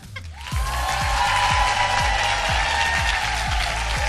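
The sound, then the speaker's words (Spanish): An audience applauds and cheers loudly and continuously for several seconds for a contestant, voting with its noise in an elimination round, with a steady rhythmic low thumping pulsing beneath the noise. “pregunto por cada una de ellas, me hacéis ruido y la que menos ruido se lleve, pues está fuera de esta ronda ya.”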